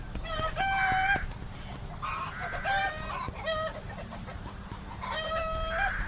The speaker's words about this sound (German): Hinterm Haus hat sie Hühner und Bibeli.